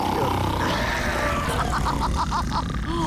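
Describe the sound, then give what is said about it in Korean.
A voice mimics the loud, rough snoring of a man in a Korean jjimjilbang (public bathhouse), with rumbling grunting breaths and a series of rhythmic snorts near the middle, strong throughout. “하지만 남자는 아까보다 더 이상한 소리를 내면서 코를 골고 있었습니다.”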